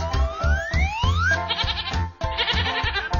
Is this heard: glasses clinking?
no